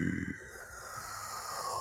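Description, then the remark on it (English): A voice imitates a deep, slow breath of a huge sleeping creature, a low rumbling inhale with a snore-like rasp, fairly quiet, with no words spoken. “Uh, it's less labored than it was before for those who were around, but a very deep breathing, you know, almost uh, like a slumber, you know, like a big.”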